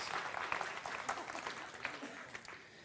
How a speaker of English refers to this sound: give them a little round of applause as they go back to their seats.